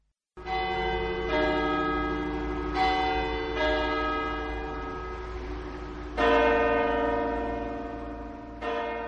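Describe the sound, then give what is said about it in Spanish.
A wall clock strikes two o'clock: a short run of bright, ringing bell tones, then two slower, fuller notes, each left to hum and fade. No one speaks. “Dieron las dos en el reloj de pared.”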